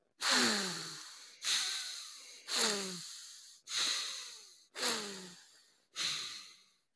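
Six breathy rushes of air follow one another at an even pace, each starting abruptly and then tapering off: slow nasal diaphragmatic belly breathing, inhales and exhales of about three to four seconds each, demonstrated as a breathing exercise. No one speaks.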